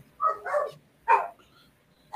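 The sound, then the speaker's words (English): A small Beagle and Yorkshire Terrier mix dog barks three times in quick, uneven bursts, sharp and yappy. The first bark stretches into a double yap, and no one is speaking. “And my, my, dog might have a question too, but we'll let him go.”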